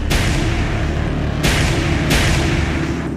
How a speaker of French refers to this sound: récupère l'arme de son chef et ouvre le feu sur la momie.